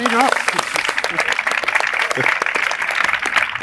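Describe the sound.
At the close of the session, an audience bursts into steady applause for a YouTuber, dense overlapping claps forming a bright, continuous crackle, with a few voices briefly calling out over it at the start.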